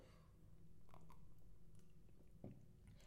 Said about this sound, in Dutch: Een moment hoor, ik neem even een slokje tussendoor.